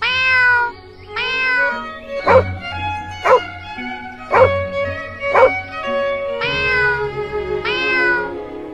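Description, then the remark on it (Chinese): A black kitten named Ye Yi meows in long, drawn-out tones, then a dog named Da Huang gives four sharp, evenly spaced barks before the cat's wavering meows return as the two play together. There is no talking. “哈哈，我和小猫叶一还有小狗大黄一起玩出了一首音乐呢，很好听啊！”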